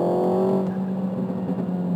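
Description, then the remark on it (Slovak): A loud Renault car engine revs high with the throttle held down, then drops as the throttle is released, followed by a rough, crackling burble of exhaust pops, with no talking. “A ešte keď máš dlhšie stlačený plyn a potom trošku pridáš a pustíš, tak vtedy to dá proste ako keď dve električky sa zrazia.”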